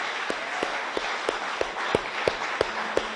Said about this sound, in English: Give the Lord a big hand clap, will you please?